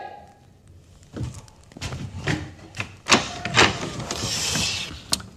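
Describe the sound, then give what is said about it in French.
Heavy knocking on a wooden door, several loud, irregular thumps spread over a few seconds, with a rising hiss and faint shuffling toward the end and no voices. “Vous frappez encore une fois sur cette porte, vous prenez un pain chacun.”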